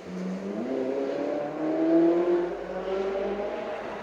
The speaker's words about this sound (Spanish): eso sí, era un Ferrari, carnales. Acaban de escuchar un Ferrari en el podcast.